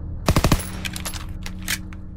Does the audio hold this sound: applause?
no